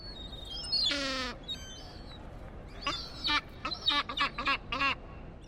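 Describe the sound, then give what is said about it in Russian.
A Caspian gull gives its laughing call: one long, harsh, nasal cry, a short pause, then a quick run of repeated yelping notes, clear against a quiet background. “А вот так кричит хохотунья.”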